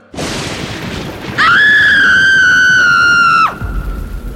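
A loud rush of rain and a rumble of thunder, then a woman's long, high, piercing scream lasting about two seconds before it cuts off abruptly, leaving the steady downpour.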